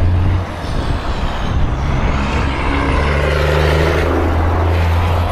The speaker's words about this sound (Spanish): Hay veces que me pasa un camión por el lado y no puedo hablar.